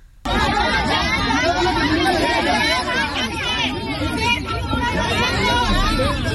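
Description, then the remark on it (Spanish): A loud, agitated crowd of people of all ages brawling outside the Telmex Auditorium box office in Jalisco over concert ticket sales, with many overlapping voices shouting and clamoring at once in a dense, continuous uproar that stays intense for the whole stretch. “Te lo juro que se armaron los trancazos afuera del auditorio Telmex en Jalisco.”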